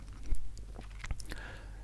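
Crunchy chewing of a biscuit during a late-night chat, with a few sharp bites and crackly mouth sounds over about two seconds, fairly quiet and with no talking.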